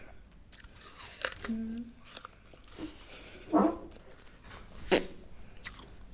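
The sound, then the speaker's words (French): Someone chews food with crisp, crunchy bites, two loud crunches standing out among softer wet mouth clicks and smacks at an irregular pace, with a faint voice murmuring briefly. “En dehors de parler, qu'est-ce que tu fais avec ta bouche Manger.”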